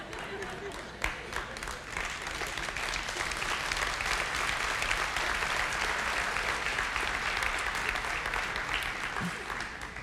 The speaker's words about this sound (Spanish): Anémico el aplauso, anémico.